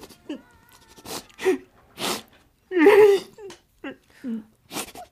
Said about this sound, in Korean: 정희 씨는 어디선가 훌쩍이는 소리에 눈을 떴습니다.